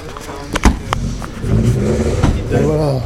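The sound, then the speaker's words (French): An old car engine revs, its deep rumble swelling and holding loud through the second half, with a few sharp clatters early on and faint voices in the background. “une voiture mythique.”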